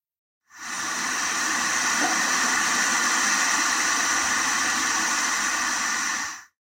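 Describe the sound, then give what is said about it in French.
A steady, whooshing hiss like the sea heard inside a seashell fades in, holds evenly for about six seconds, then fades out. No voices. “C'est le bruit de la grande-mère dans un coquillage.”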